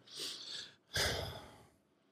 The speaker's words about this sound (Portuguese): Uma tosse. tossidinha.